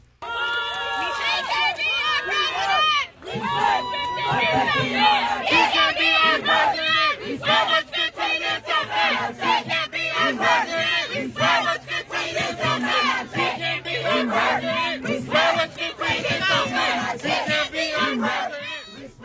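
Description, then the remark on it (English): A crowd of protesters shouts and heckles a marcher at a march with striking McDonald's workers in Charleston, South Carolina, many overlapping voices yelling loudly with rhythmic bursts of chanting throughout. “He was heckled as he marched the striking McDonald's workers in Charleston, with protesters shouting, He can't be our president.”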